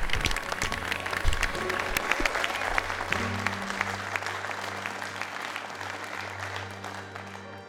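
Sustained applause from a crowd, a dense patter of many hands clapping for the full length, steady and fairly loud with a faint low hum underneath and no talking.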